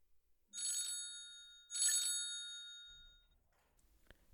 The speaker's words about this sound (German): Sherlock in der Abbey Road ankommt, klingelt bereits das Telefon in der Telefonzelle und eine Passantin möchte schon abheben.